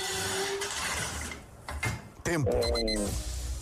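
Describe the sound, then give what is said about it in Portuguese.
An ironing board being unfolded: rattling metal clicks and clanks, then a sharp, squeaky metallic creak and a thump. A voice briefly speaks over the start. “Eu tenho o palpite que talvez seja abrir uma tábua de passar a ferro, portanto, passar a roupa a ferro.”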